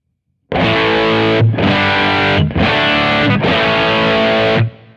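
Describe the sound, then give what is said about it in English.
A heavily distorted electric guitar played through an amp profile, first gain stage at maximum and second gain stage at 10 o'clock, plays four loud, sustained chords in a row, each ringing thick and saturated with brief breaks between them, then cuts off into silence. “So, uh, first gain stage maximum, second gain stage at 10 o'clock.”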